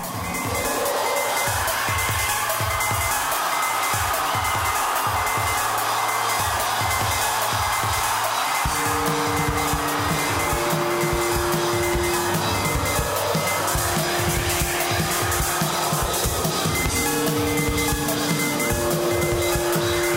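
A live electronic rock song plays loudly: a driving, steady drum-machine pulse under a dense, hissing wash of noise, with sustained synth chords entering about halfway through. No one talks.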